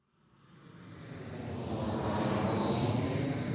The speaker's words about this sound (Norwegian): Dette er lyden av en jumbojet som lander. En jumbojet med flyktninger som kommer rett fra krigsherjede Aleppo til Buvik for å få asyl.